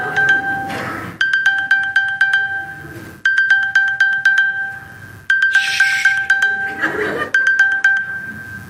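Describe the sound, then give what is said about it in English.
A mobile phone ringtone plays a repeating electronic melody of steady high tones in short bursts, looping about four times, with a burst of laughter partway through. “all right i've even got it on silent i got all all right i get the hint”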